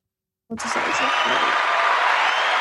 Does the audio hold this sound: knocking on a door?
no